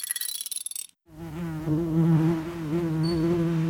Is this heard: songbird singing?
no